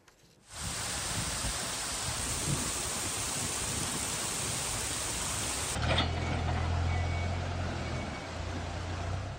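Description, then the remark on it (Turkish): A loud, steady roar of heavy rain and rushing floodwater from a swollen creek, after about an hour of rain, fills the scene without pause; partway through, a low engine rumble like a truck joins underneath the water noise. “Yaklaşık bir saat süren yağış sele neden oldu. Derenin debisi yükseldi.”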